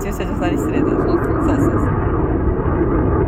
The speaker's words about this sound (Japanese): 飛行機が大丈夫かな聞こえてるかな